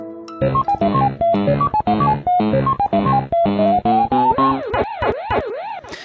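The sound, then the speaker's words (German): A bright, bleepy electronic jingle of quick stepped notes plays, then gives way to a looping rising-and-falling synthetic wail: a Pac-Man arcade game starting up, played as a lockdown hobby, loud and with no talking. “Zurück in die Uhrzeiten des Internets, zurück zu Pac-Man.”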